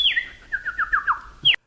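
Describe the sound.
Someone imitates a blackbird's song by mouth: a high whistle sliding downward, then a quick run of warbling chirps ending in a sharp bright note. It is clear and has no talking.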